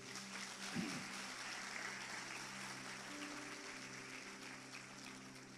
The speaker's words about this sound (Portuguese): Então, palmas para Jesus aí.